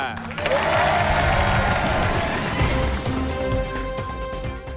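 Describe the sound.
A studio audience bursts into loud, sustained applause, a dense wash of clapping mixed with cheers and crowd voices that holds steady for several seconds before easing slightly at the end.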